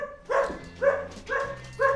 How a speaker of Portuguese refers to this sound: Essa música é sensacional, os cachorros continuam latindo aqui, eles não resolvem, resolveram ficar na porta do estúdio latindo.